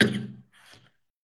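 Two coughs in quick succession: a louder, throaty first cough followed by a softer, breathier second one, then silence.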